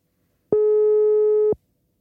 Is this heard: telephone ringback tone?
yes